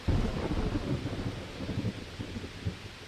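A deep, rolling rumble of thunder at the start of a storm, as heavy raindrops begin to fall, fills the air, strongest at the outset and then grumbling on steadily with a low, heavy resonance, faint rain and wind hiss beneath it.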